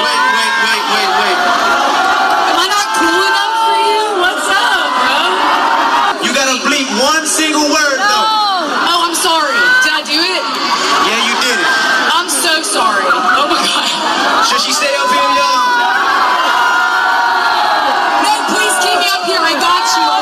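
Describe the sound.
A huge crowd at a hip hop concert in Alabama roars and chants together, many voices shouting in rhythm at a steady, loud level for the whole stretch, with whoops and cheers rising out of the mass.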